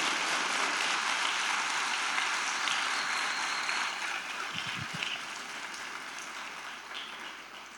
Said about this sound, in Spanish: ¿Cuántos se suman a esto? Si se quiere sumar, dele un fuerte aplauso al Señor Jesús.